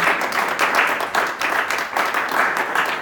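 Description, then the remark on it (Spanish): Steady applause from an audience at the AT&T flagship store in Polanco, applauding the AT&T staff, a dense wash of many hands clapping at an even, sustained loudness for about three seconds with no voices standing out. “Un aplauso para la gente de ATT que nos casa.”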